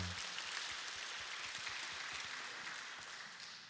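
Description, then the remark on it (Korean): An audience applauds one another as a gesture of love and blessing, a dense, steady wash of many hands clapping that holds evenly for several seconds and tapers slightly at the end, with no talking over it. “서로에게 사랑과 축복의 박수를 드리겠습니다.”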